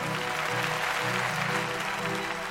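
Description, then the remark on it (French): Loud, sustained applause from deputies in the French Assembly during a censure debate, dense clapping filling the whole stretch without pause, with a faint murmur of voices underneath. “Applaudissements des grands jours.”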